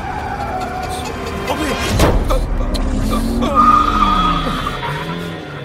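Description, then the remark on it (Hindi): The tires of a speeding car on a jungle road in an accident-prone area screech and skid loudly for several seconds, with a sharp thud around the middle as the car strikes someone who goes under it, the squealing continuing afterward under traffic noise. “यार यार कार के नीचे कोई आ गया मैंने पहले ही कहा था तुझसे कि स्पीड कम कर तू सुनता नहीं है”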